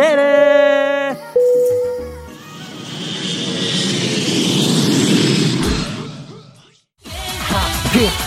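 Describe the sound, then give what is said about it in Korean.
A short chime of tones gives way to a broad jet-engine roar of an airplane taking off, swelling loudly and then fading before music cuts in. “자 그럼 우리 비행기 이륙합니다.”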